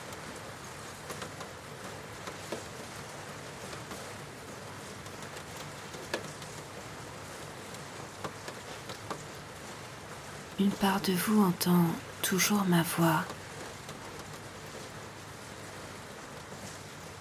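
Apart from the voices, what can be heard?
steady rain falling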